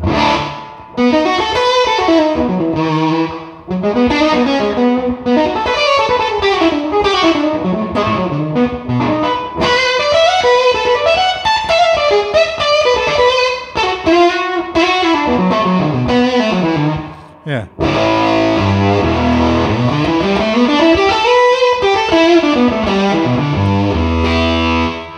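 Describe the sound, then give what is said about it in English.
A fuzz-distorted electric guitar, played through a Burkos Third Stone fuzz pedal, plays flowing melodic lines drenched in plate reverb and delay, loud and continuous with trailing echoes, briefly pausing before resuming with sweeping phrases. “I have a sound like here's, you know, as silly as it sounds, here's a sound with a plate reverb and a fuzz and a delay, you know, so it's kind of the … thing.”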